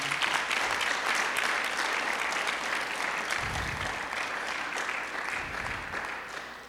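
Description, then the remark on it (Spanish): An audience applauds God steadily, a dense, even wash of many hands clapping that holds strong throughout and eases off slightly toward the end, with no voices standing out. “¿Alguien puede aplaudir todavía a ese Dios lindo que tenemos?”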